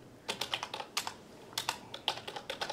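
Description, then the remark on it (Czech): Rapid clicking of keys on a computer keyboard, a steady burst of typing with irregular short taps, fairly clear, with no voices. “Což vlastně je úplně gramlavý ruce a ta klávesnice je úplně strašné.”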